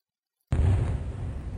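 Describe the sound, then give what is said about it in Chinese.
Fireworks are lit at night on the highest mountaintop: after a brief silence, a sudden loud bang bursts out, then gives way to a sustained, deep rumbling roar with crackling texture that continues steadily. No one speaks. “欢满意的点燃烟花，”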